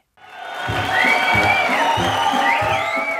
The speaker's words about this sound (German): Unter Applaus und Hubert, Hubert rufen zieht der Spitzenkandidat der Freien Wähler ins Festzelt ein. Hubert Aiwanger schüttelt viele Hände, winkt der Menge zu.